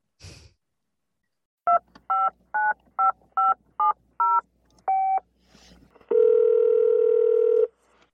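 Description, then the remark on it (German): A quick run of touch-tone dialing beeps as a phone call is placed, seven in steady rhythm and one more after a pause, followed by a long, steady phone tone; clear, with no talking. “Ich würde sagen, rufen wir einfach mal an. Wir rufen ihn an, genau.”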